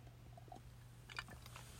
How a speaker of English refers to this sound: Let me take a sip of my matcha.